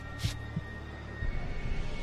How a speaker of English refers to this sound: Gradually, the figure came closer and closer. I could feel my heart pounding in my chest.